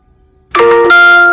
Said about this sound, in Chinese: 叮咚，忽然收到了一条短信。